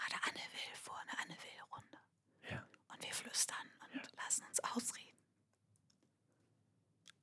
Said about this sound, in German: Das, ich ich stelle mir jetzt gerade total genial vor, ein Mitarbeitergespräch, wo, wo beide Parteien flüstern.